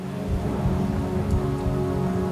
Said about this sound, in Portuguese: O temporal não abrandava.